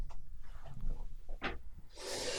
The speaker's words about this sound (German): Hopp, aber warte kurz, weil ich muss wieder niesen.